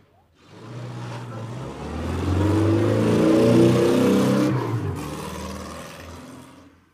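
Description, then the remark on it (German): A combustion car engine revs up with a deep, throaty rumble, then midway shifts into a smoother, higher electric-car motor whir that fades out, the combustion car turning into an electric car. No one speaks. “Okay, wir hatten ja den Anfang äh, schon, also aus dem Verbrenner wird ein E-Auto.”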